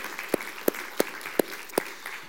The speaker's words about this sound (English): but uh, welcome back to our praise band. Glad to have them back as well. In fact, how about a round of applause of how the Lord has used them today as well?